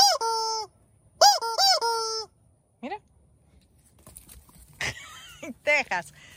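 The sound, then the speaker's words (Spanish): A squeaky rubber duck toy, offered to animals including Tejas to play with, honks in a series of loud, nasal squeaks, several close together at first, then a lone honk, followed by softer squeaks amid rustling background noise. “No, no les atrajo el pato.”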